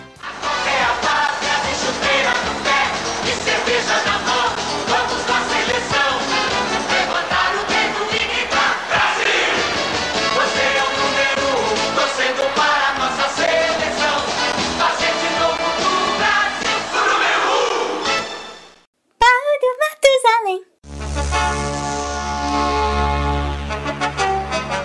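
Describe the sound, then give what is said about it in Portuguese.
A large crowd shouts a loud, rhythmic football chant in unison for nearly twenty seconds, celebrating Brazil becoming four-time world football champion, then it cuts off into a brief whooshing sweep and a steady sustained tone. “Então a gente merece levantar o dedo e gritar: Brasil, você é o número 1.”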